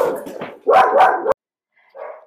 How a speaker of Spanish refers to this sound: alerta de perros